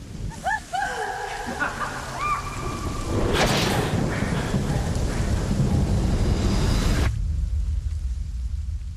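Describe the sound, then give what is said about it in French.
Heavy rain pours down in a steady, dense hiss, with a low rumble of thunder underneath, cutting off abruptly near the end, in the trailer for the film Emily, about Emily Brontë, set in England. Brief rising tonal calls sound faintly before the downpour swells. “elle danse dans des champs de pâquerettes, sauf que c'est l'Angleterre et donc il pleut”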